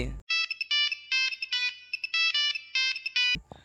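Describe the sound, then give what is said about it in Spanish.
A retro cell phone ringtone plays a bright, beeping electronic melody in quick repeated bursts, loud, with no voices over it. “Hablando de los celulares retros, de la ah, vigorita.”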